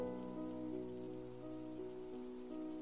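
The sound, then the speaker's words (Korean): Steady, heavy rain pours down on a roof overhead in gloomy morning weather, a constant dense patter that stays loud and even throughout with no voices or other sounds. “날씨가 꽤나 우중충한 데다가 비가 세차게 내리는 중이었다. 그때 지붕 위로 떨어지는 빗소리를 하나하나 다 들은 기억이 난다.”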